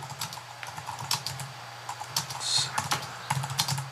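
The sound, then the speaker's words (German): Rapid typing on a computer keyboard as the film title The Day After Tomorrow is typed in, a steady stream of light clicky keystrokes in uneven bursts over a low constant hum, with no voices. “So, dann schreibe ich mal The Day After Tomorrow ist aber ein anderer Film als The Day After.”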